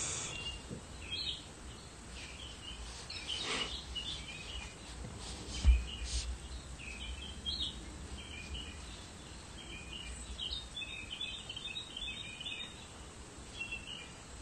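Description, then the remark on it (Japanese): Small birds chirp and tweet steadily, short high calls repeating throughout over a soft outdoor hiss, with one brief low thump midway and no one speaking. “今日もね、えっ、ー、と、小鳥さんの声が聞こえてるといいんですけども。”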